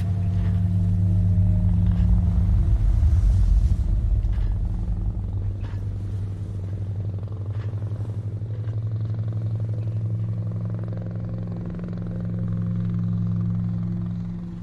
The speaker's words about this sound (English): As I lie now on the ground, my eyes steadily drifting shut, I hear the distant sound of a helicopter